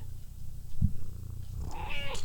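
A female cat purrs right up against the microphone, a steady low rumble throughout, with a brief thump partway and a short chirpy vocal trill near the end.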